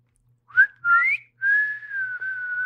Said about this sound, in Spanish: Y por eso, si, si escuchan silbidos en el bosque o en la selva, no los sigan.